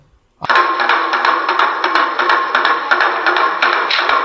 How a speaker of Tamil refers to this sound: ஆம் தூரத்தில் எங்கேயோ வீதியில் பறை கொட்டும் சத்தமும் நடுநடுவே மனித குரல் கூச்சலிடும் சத்தமும் கேட்டது